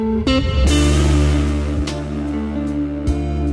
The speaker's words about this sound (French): Il y a de la distorsion dans le bass à part de ça. Intentionnel ou pas, je sais pas.